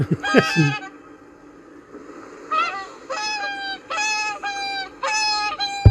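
Whooper swans call in Finland in a series of loud, bugling honks, one burst at the start and then four evenly spaced calls close together, clear with no talking.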